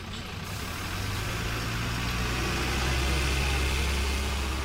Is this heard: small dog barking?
no